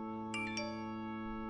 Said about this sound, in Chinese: 开会一路开到了下午一点，匆匆扒拉了两口饭，手机不合时宜的响起来了。